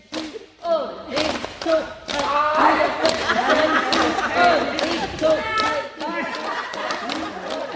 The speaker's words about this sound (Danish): Mens der klappes i hallen